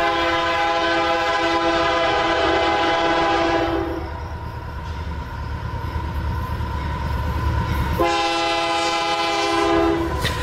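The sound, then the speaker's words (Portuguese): A six-carriage passenger train, departed from Lisboa-Rocio station in Lisbon, Portugal, toward Mãe Martins on the Sintra line, rumbles steadily and loudly along the rails on a late afternoon of 20 December 1965, with a long, sustained horn blast at the start and another sounding again near the end. “comboio de passageiros partiu da estação de Lisboa-Rocio, em uh, Lisboa, em direção a Mãe Martins, num final de tarde de 20 de dezembro de 1965, como todos os dias.”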